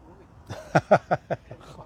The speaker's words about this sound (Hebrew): לא חשבתי שלא יגיעו אנשים שיתחילו לצעוק פה לידי. זה גם מדהים, הוא עומד לידו, אני הייתי מצלם לכם את זה, הם עומדים במרחק של 40 סנטימטר אחד לשני, והם צועקים.